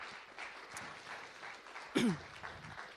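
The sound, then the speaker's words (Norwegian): A crowd applauds the team that led the worship singing on a Sunday, with dense, steady clapping for the whole stretch, and one loud, short whoop cuts through the applause about two-thirds of the way in. “Skal vi gi dem applaus?”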